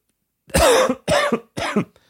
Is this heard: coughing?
yes